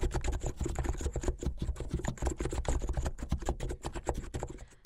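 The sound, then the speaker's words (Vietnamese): Rapid, steady typing on a computer keyboard, with crisp dry clicks running continuously for several seconds and no voices. “thích những âm thanh khô, rời rạc và có độ xốp, độ giòn, ví dụ như là tiếng gõ bàn phím.”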